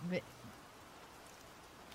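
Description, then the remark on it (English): Soft, steady rain hiss fills the whole stretch as an even wash of patter, preceded by a brief fragment of a voice at the very start. “I need the rain sounds to meditate after that.”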